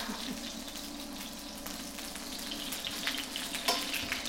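Steady, crackling sizzle of duck fat frying in a pan, a dense hiss with scattered sharp pops and spits throughout, fairly loud and continuous with no voices.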